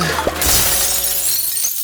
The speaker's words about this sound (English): Ooh, whoops. Ah, my rolling rye barrels, what happened? Oh, it sounded like glass shattering. It was.